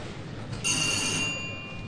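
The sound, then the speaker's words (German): A single bright ding from a service bell in a Rewe store, rung to call an employee, with a clear metallic ring that fades away over about a second against a low background hum. No one speaks. “Ja, dann, wenn wir da nämlich, dann ist eine Klingel.”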